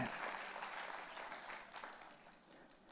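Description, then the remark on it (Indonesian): A church audience claps for Jesus at Christmas, a dense, sustained wash of many hands applauding that holds fairly even for three seconds and tapers slightly toward the end, with no one speaking over it. “Keluarga Allah tepuk tangannya yang paling meriah buat Yesus Tuhan kita.”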